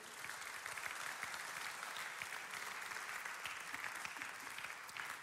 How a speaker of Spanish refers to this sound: Podemos darle un fuerte aplauso al Señor por eso.